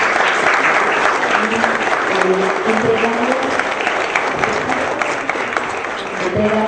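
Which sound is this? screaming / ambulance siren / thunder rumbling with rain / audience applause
audience applause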